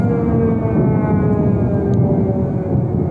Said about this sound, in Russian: В первый раз услышать сирену, а после этого бахи ПВО. А тогда ты еще ж не понимаешь, что это стреляют пушки ПВО, а думаешь, что уже город бомбят.